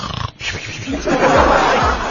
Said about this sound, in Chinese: 来自央视的消息，近日昆明某驾校学员。在学习道路驾驶的时候，这边开着车呢，那边教练员已经打上呼噜了。